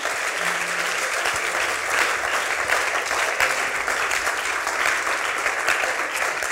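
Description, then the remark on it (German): Steady applause from a church service audience fills the whole stretch, a dense, continuous patter of many hands clapping at a fairly loud, even level with no voices on top, clapping for three people who have just come to God. “Ja, komm, wir klatschen erstmal für die drei Leute, die sagen, komm on, hier bin ich Gott.”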